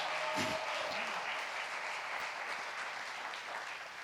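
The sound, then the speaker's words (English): A large church audience claps steadily, a dense wash of applause at even loudness for several seconds, with a brief voice or cheer near the start, celebrating the sound engineers and worship team. “Can we celebrate those that serve today?”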